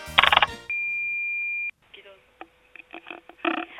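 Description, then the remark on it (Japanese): An answering machine's playback beep from the answering machine in a classroom that holds listeners' recorded messages: one steady, fairly loud electronic tone lasting about a second, after a brief noisy burst and followed by a voice talking through a thin, phone-like line. “この教室にある留守番電話に吹き込んでもらったみんなのお悩みを部長が解決していきますお悩みカモン”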